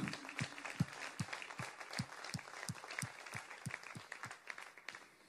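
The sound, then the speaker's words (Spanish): An audience applauds strongly for the Lord, many hands clapping at once in a dense, sustained wash with a faint regular rhythmic pulse running underneath, moderately loud throughout. “Dáselo fuerte al Señor.”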